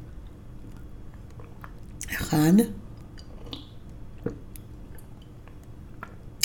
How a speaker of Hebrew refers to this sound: מעולה, לקחתי שלוש לגימות של מים עם אלוברה, מרווה ביותר מים קרים, ואני ממשיכה איתכם הלאה.